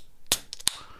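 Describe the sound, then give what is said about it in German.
A can of Grolsch beer being cracked open: a sharp metallic snap, a short fizzing hiss, then a second crisp pop, with no voices. “das war der Klang einer Dose, was ihr in Deutschland überhaupt nicht mehr kennt.”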